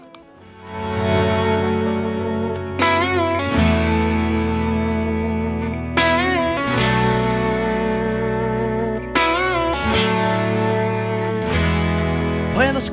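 A rock song plays loudly and steadily, led by thick, distorted electric guitar chords that ring out and change every few seconds over a full, sustained band sound.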